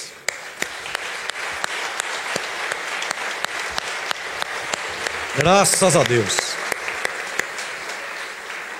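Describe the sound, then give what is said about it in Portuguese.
An audience at a church service applauds Jesus, clapping steadily throughout, a dense, sustained patter of many hands at moderate loudness, while a man's voice briefly speaks over the applause partway through. “Vamos aplaudir Jesus?”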